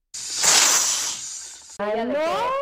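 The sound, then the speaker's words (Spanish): A person imitates a snake's hiss with a loud, sustained breathy 'sss' lasting over a second, then breaks off into a short burst of voiced, laugh-like vocalizing. “Y que al momento de que salió el escenario, la serpiente empezó como a.”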